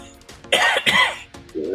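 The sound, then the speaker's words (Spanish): Two harsh, sputtering coughs burst out, as if someone is choking, followed by a short strained vocal sound. “yo pensé que te estabas atragantando con el uniforme de los ganeses”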